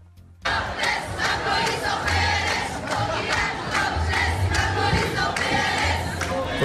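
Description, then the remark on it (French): A crowd of protesters, many of them topless women, in Aurillac chants a rhythmic slogan in unison, loud, their voices rising together in repeated shouted phrases with no other talk over them. “On écoute ce que disaient, les, ce que disaient les manifestants.”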